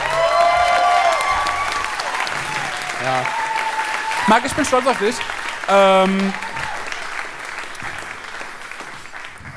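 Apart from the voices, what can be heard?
audience applause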